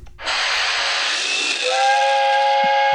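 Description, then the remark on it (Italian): A toy train's steam whistle on a nativity scene blows loud for about three seconds as the train comes out of the grotto: a rushing burst of hissing steam that settles into a steady, piercing multi-tone whistle. No one speaks over it. “Oh, il treno che esce dalla grotta!”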